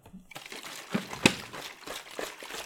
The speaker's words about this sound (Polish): Tak, tak brzmi prysznic, bo się myję w butelce wody.